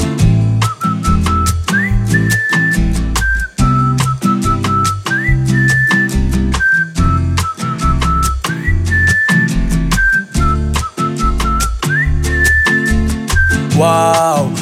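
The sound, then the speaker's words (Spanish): A loud, steady Brazilian-style bossa nova song with plucked guitar chords, bass and light percussion, while a clear whistled melody floats on top in repeating phrases. No one speaks. “hay algún momento que suena muy jamaicano a lo largo del disco, o efectivamente muy brasileño, como esta bossa nova, con silbidito incluido.”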